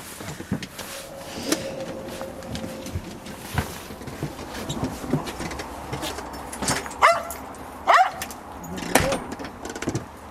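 A dog barks a few times at irregular intervals, short sharp yelps that stand out over a busy, noisy background with occasional knocks and clatter.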